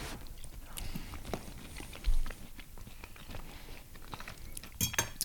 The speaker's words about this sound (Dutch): ik ga toch even mijn eerste hap nemen bij deze